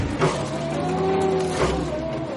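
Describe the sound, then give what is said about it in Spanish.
A tractor with a toothed front shovel drones steadily in a fruit orchard, its pitch shifting as it reverses, with two dull knocks as it rams its shovel into a tree trunk. No voices are heard. “Da marcha atrás, enviste de nuevo.”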